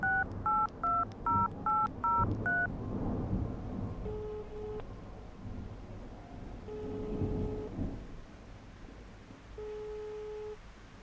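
telephone number being dialed

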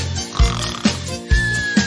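snoring

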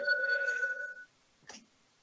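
text message notification tone

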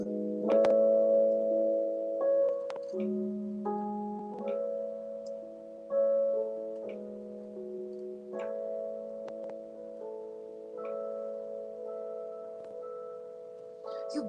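electronic keyboard being played

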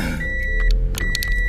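inside a moving car

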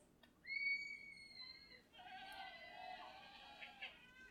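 sheep bleating

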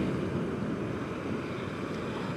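ocean waves

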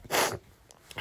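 sneeze from hay fever

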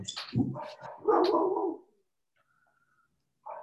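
german shepherd dog barking

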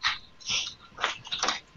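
dog

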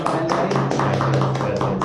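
applause

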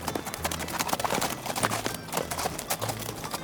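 horse hooves clip-clopping

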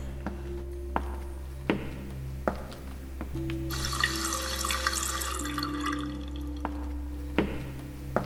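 water running

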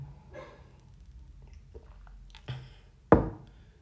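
sipping tea

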